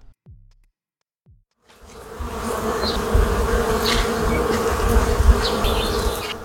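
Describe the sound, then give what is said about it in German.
A dense, steady hum of many honeybees swarming around their hive in late summer rises in after a short quiet start, with individual bees buzzing past over the continuous drone. “In den vergangenen Monaten haben die Bienen fleißig Blütennektar in ihren Bienenstock getragen und ihn zu Honig verarbeitet.”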